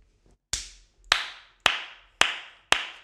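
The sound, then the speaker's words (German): A short bit of applause: five sharp, evenly spaced hand claps at a slow, steady pace, each crisp and fairly loud, with no voices. “ganz grosser Applaus für dich”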